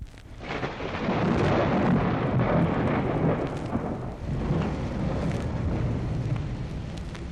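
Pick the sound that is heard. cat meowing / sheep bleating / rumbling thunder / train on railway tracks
rumbling thunder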